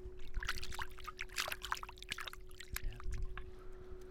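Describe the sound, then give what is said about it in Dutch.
A hand swishing through clear, clean river water in the Millingenwaard, Netherlands, with quick bursty swishes and trickles, plus a steady low hum underneath. “Heerlijk om daar een beetje met de hand doorheen te gaan.”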